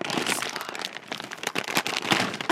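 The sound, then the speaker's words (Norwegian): Crinkly plastic crackling as a bag of Sørlandschips orange-and-chocolate flavoured chips is handled and pulled open, a dense run of sharp rustles and crunches lasting a couple of seconds with no talking. “Nå skal jeg åpne den posen her.”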